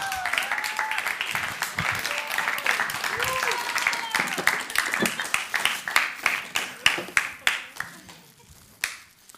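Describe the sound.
A small group claps for someone who carried a table up during a talk, the applause dense at first and thinning into scattered separate claps before fading out, with a few voices calling out over it early on.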